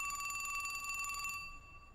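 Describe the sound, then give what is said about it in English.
A telephone bell in a house rings with a rapid metallic trill for about a second and a half, then stops abruptly, leaving a quiet background hum. No one speaks. “One day, when I was about 10, I was walking up to the house and I heard the phone ringing.”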